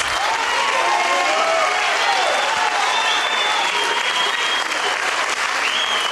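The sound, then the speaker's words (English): A large church audience gives a standing ovation to God, applauding loudly and continuously, a dense wash of clapping with scattered cheers and shouts mixed in, holding steady throughout without letting up. “If we can't give him a standing ovation, who are we going to give one to?”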